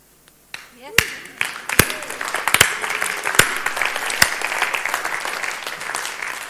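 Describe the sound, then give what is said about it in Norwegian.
A church audience bursts into applause for its own volunteers and staff, many hands clapping in a dense, sustained wash, with a few sharp louder claps standing out near the start and brief voices mixed in. “Så vi klapper litt for oss sjøl.”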